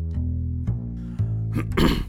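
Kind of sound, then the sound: human body sound, throat clearing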